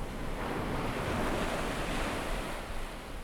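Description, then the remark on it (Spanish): Steady roar of ocean surf, a dense continuous wash of waves breaking against the base of a cliff, with some wind noise, fairly loud and unbroken throughout, with no voices. “Y visualiza estas olas rompiendo en la base de este acantilado.”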